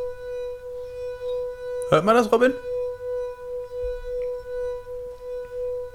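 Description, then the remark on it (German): A finger rubbed around a wine glass rim, played like a violin on the glass, produces a steady, pure ringing tone that hums continuously, gently swelling and fading, while a voice briefly speaks over it partway through. “Ja, aber hört ihr diese wunderbaren Gläser hier im Hintergrund?”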